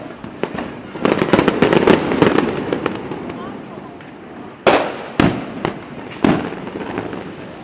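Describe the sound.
Fireworks explode in a rapid crackling barrage, then three louder separate bangs ring out at intervals, with faint crowd voices in the background.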